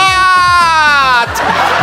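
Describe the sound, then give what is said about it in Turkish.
A sustained, slightly falling vocal tone over a pulsing low beat gives way to a loud burst of noisy, bubbling crowd laughter, like a sitcom laugh track. “Birileri arkasına kahkaha efekti basıyor.”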